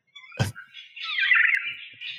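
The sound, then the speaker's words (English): A regent honeyeater imitates a black-faced cuckoo-shrike: after a brief low thump, a single harsh, rolling, wavering call sounds fairly loud, with no talking. “Uh, this is the sound of a regent honeyeater trying to be a Black-faced cuckoo shrike.”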